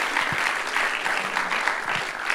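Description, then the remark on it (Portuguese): An audience at Zion Church applauds the people who were baptized there, a steady wash of many hands clapping, sustained through the whole moment without any voices standing out. “Dá uma salva de palmas aí para as pessoas que foram batizadas.”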